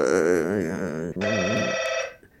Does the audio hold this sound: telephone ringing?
yes